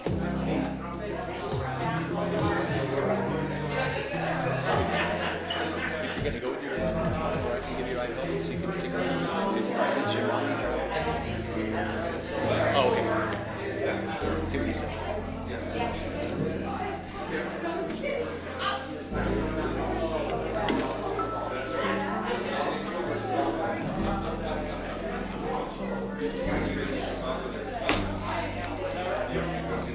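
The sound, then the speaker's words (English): A church audience chatting and fellowshipping at once, a steady, dense babble of overlapping voices with no single speaker standing out, continuing at an even level throughout. “I love to hear a fellowshipping church.”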